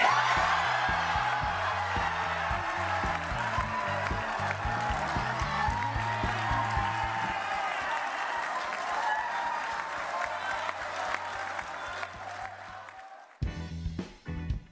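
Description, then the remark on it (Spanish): A large crowd of Japanese people erupts in loud, sustained cheering and applause with excited shouts at the announcement that Tokyo will host the 2020 Olympic Games, dense and continuous for several seconds before dropping off abruptly near the end, with a brief burst after. “¿Quién no gritaría así de alegría al enterarse de que va a recibir en su tierra a un nuevo evento de la magnitud como son los Juegos Olímpicos”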